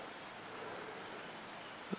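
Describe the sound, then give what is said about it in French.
A great green bush-cricket (Tettigonia viridissima), among the first of the year, stridulates in the evening in a steady, continuous high-pitched buzz that never lets up, heard from a balcony in Fourcinet, Drôme, on 9 July 2018, over a faint, quiet outdoor background with no voices. “C'est l'éveil des grandes sauterelles vertes, Tetigonia viridissima.”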